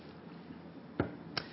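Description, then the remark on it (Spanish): Someone takes a quick sip of water: a soft, wet gulp followed by a brief lip click, two short sounds over a quiet background with no talking. “Lo mismo que el agua, ...que voy a echar un traguito.”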